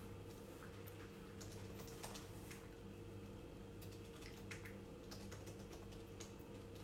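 Steady typing on a computer keyboard, a stream of quick, light key clicks at an uneven rhythm over a low, constant background hum, with no one speaking.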